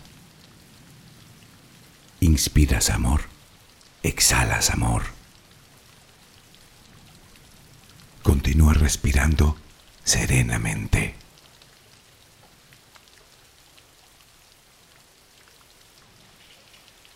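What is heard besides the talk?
steady rain falling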